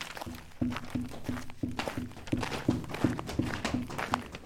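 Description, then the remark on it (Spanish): Steady footsteps crunch and tap along a stone path at the entrance of a forest under a cloudy sky, a regular walking rhythm of a dozen or so steps, with no talking. “Empezaron a caminar.”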